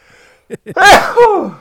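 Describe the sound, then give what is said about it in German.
A single loud sneeze, preceded by two short sharp inhales, then a burst of breathy noise that trails off. “Gott. Gesundheit. Ah, danke.”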